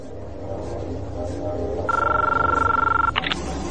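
A telephone's warbling electronic ring sounds for about a second over a low, busy background rumble, then cuts off abruptly with a couple of short clicks as the handset is picked up by Neo, played by Keanu Reeves, in a film scene before his speech to the machines.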